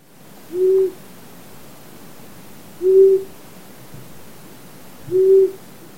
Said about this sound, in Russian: Ушастая сова.